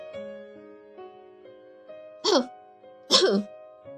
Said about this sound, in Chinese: 有人咳嗽了一声，美伊回头看，看见一个戴着墨镜的叔叔。